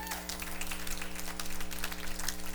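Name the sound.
audience clapping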